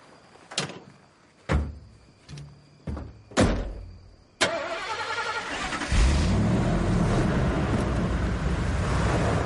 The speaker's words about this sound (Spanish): Arranca, se alejan de la gasolinera.